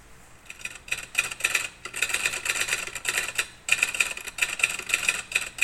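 Typewriter keys clack rapidly in dense, bright bursts, broken by a few short pauses. The crisp tapping is fairly loud and continues steadily with no voices.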